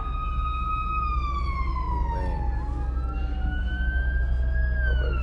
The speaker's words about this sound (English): Hold on. Fire fire truck and ambulance coming.